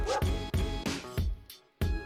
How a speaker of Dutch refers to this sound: Dit was een hond.